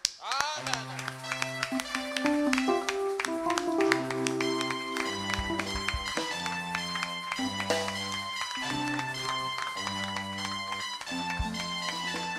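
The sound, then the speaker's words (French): A church audience claps steadily and loudly to acclaim their pastor as he is called up to preach, over sustained keyboard chords that change every couple of seconds, with voices mixed into the noise, for about twelve seconds. “On va appeler notre pasteur, notre père, pasteur ami, sur, votre acclamation.”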